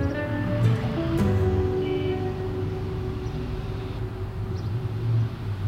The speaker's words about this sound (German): Er tritt an den Rand des Flachdachs und blickt in das Gewirr der Autos und Menschen in der Straßenschlucht unter ihm.